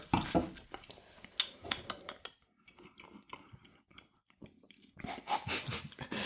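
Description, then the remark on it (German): Wet mouth sounds of someone swishing grapefruit-scented beer around through the back teeth, in irregular gurgling bursts with a brief quieter pause midway, then a louder stretch at the end. Nobody speaks. “Also, ja, ich sehe, du, du spülst die Backenzähne durch, damit sich auch alle ähm, äh, Geschmacksaromen hier entfalten können.”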